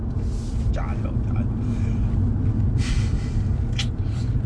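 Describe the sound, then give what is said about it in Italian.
A steady, heavy low rumble of a car's interior while driving through a run of red traffic lights fills the whole stretch, with a voice talking briefly over it and a few soft breathy hisses. “ah, fanculo, adesso passo, basta sti semafori. Tutti rossi, questo rosso voglio passare, ecco.”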